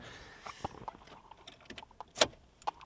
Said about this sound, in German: Warte mal, ich muss eben den Schlüssel ziehen.